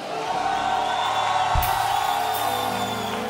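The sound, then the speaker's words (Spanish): A church audience at a worship service during a week of fasting and prayer claps, cheers and shouts loudly in a sustained, dense roar with whoops rising above it, filling the space continuously throughout with no pauses. “Declaramos que somos libres con un aplauso y un grito bien fuerte.”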